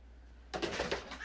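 A cat meows in a short, wavering cry that breaks into a few quick pulses, clear, following a moment of near silence with no one talking.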